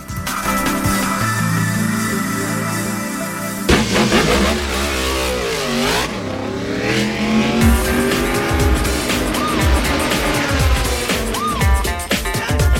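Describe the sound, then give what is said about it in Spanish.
Loud racing motorcycle engines scream past one after another, their pitch climbing and dropping as they rev and sweep by, a continuous roar with no talking. “Las motos.”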